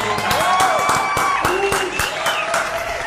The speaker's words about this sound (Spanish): Un aplauso.